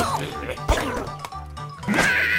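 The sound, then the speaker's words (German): Cartoonish computer game crash effects as birds are shot at pigs, with a sharp thwack followed by clattering, smashing debris over a busy, layered game soundtrack, loud. “Darum bin ich heim und am Kompi so ein Game gespielt, um meine Aggressionen loszuwerden. Man muss mit Vögeln auf so Säue schiessen. Bam!”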